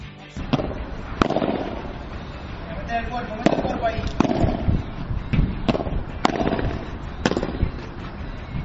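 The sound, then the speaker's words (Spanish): Sharp, echoing pops of padel balls being struck during a professional women's pair training session, about eight hits at an uneven rally pace over a steady background murmur, with faint voices on the court. “Vamos, esto que escuchamos es un entrenamiento de, vamos, a todo lujo.”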